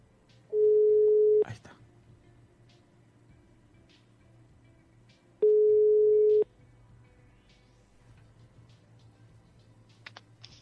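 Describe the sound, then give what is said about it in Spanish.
A phone call placed by the show Uniendo Corazones del doctor Jeringón rings out with no answer: two loud, steady mid-pitched ringback tones, each about a second long, separated by a roughly four-second pause, over a low hum and faint keyboard clicks. “No está contestando nadie, se me está yendo el programa entre las manos.”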